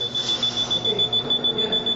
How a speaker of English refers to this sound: Inside this giant white walled tube, with fluorescent lights flickering and electronic equipment beeping, is like being in a spaceship.